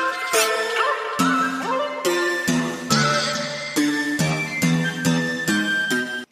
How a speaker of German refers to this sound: diese, hier diese koreanischen Klänge, weißt du, so diese traditionellen. Und ich war so, oh mein Gott, was ist das?